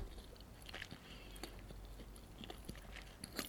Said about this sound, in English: So like I want another iconic... chicken tender. Enjoy the chicken tender. Um, masticate it. Masticate as I, it. As I talk.